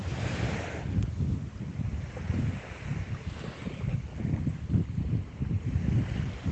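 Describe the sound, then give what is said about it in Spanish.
Ocean waves roll in and wash back in a steady, continuous surge, mixed with gusty wind buffeting the microphone, with no voices present. “Escucha ese vaivén de las olas naturaleza te brinda ese camino hacia la tranquilidad, la calma, la paz.”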